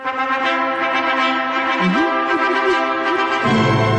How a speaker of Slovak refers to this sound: predstavte si tento svadobný pochod, to je skladba, ktorá vznikla ešte v roku 1842